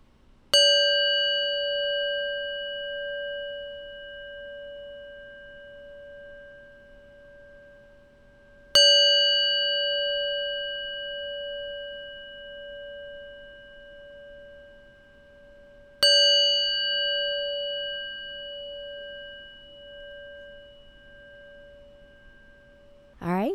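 A resonant metal sound ball is struck three times, about eight seconds apart, each stroke ringing out with a long, clear, slowly fading tone in an otherwise quiet space.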